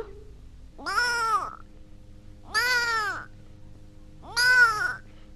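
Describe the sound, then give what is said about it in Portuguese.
A kitten meows three times at steady, even intervals, each call a drawn-out, rising-then-falling mew that's fairly loud and clear over a low, steady background hum. “O gatinho.”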